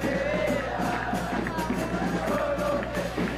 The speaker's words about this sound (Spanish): Dice Brian Gómez que se escucha mucho la porra. Perfecto, eso es lo que estaba esperando que me dijeran para ver si le bajaba un pelín. Ahorita mismo le bajo.